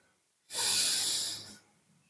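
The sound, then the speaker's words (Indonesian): One deep, airy breath drawn in slowly through the nose into the lungs with a long rhythm, a steady hiss lasting about a second, with silence before and after and no talking. “Yang masuk melalui hidung kita, kerongkongan, ke paru-paru hingga ke perut kita nafas dengan ritme yang panjang.”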